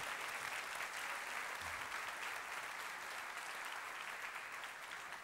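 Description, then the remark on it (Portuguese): A church audience applauds the scripture reading steadily for several seconds, a dense, even wash of many hands clapping at a constant loudness with no voices standing out. “Vamos aplaudir a palavra do Senhor.”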